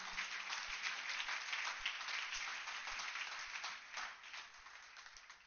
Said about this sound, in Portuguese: Você pode aplaudir a palavra do Senhor?